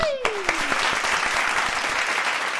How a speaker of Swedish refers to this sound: en stor applåd till bruden för denna challenge!